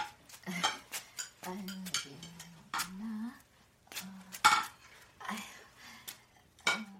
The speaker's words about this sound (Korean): 찬장을 여닫을 때마다 끊임없이 들리던 털그럭 소리.